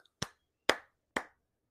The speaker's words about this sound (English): And he gets up and he starts clapping.